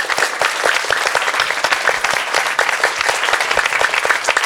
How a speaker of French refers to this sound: Je crois qu'on peut, on peut l'applaudir d'ores et déjà.